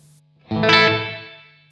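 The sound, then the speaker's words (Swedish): A single guitar chord strummed through an effects pedal with a darker, warm tone, ringing out with a chorused, slightly distorted sustain that slowly fades; a low steady hum sits underneath. “Det är den mörkare.”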